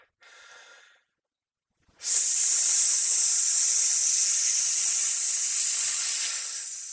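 A brief hissing breath sounds first, then after a pause comes a long, loud, steady hiss of forced exhaled air lasting about five seconds, made while clenching the buttocks. Nobody speaks.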